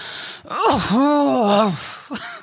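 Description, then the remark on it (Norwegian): A voice imitates the strained groan an older man makes when standing up, a sharp inhaled gasp followed by a long, wavering vocal 'oof' with rising and falling pitch, fairly loud. “Men før jeg får snudd meg, så hører jeg sånn skikkelig sånn gammalmannsoff bak meg.”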